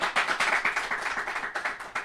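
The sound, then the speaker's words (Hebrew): A crowd claps steadily to welcome a newcomer, with many overlapping hand claps forming a dense, bright, even rhythm that stays loud for the whole couple of seconds, with no voices. “תנו לו כפיים, חברים.”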